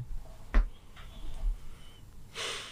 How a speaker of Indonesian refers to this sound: Tarik napas lah ya. Sama-sama. kita tarik napas. Sama-sama kita tarik nafas.